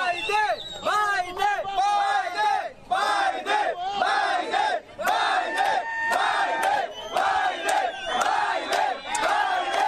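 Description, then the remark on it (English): A large crowd screams and chants in unison, a loud, continuous roar of many voices repeating the name "Biden" over and over as a short rhythmic call, dense throughout. “And it only grew in strength from there. They're screaming Biden, Biden, Biden.”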